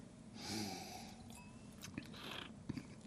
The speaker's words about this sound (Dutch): En ook hier weer neem je een slokje, een klein beetje zuurstof erbij. En het door je mond walsen en dan doorslikken.